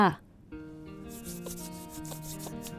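A girl who feels cold rubs her hands back and forth against her bare arms in a soft, continuous swishing friction, lasting a couple of seconds over a faint background of steady humming tones.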